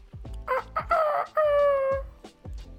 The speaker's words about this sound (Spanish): Y escuchaba ese puto gallo.